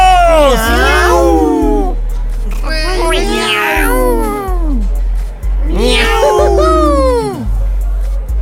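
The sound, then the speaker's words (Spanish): Three loud, drawn-out cat meows, evenly spaced about two seconds apart, each rising and falling in pitch, with a steady low hum running underneath. “Tres miau por nuestros amigos.”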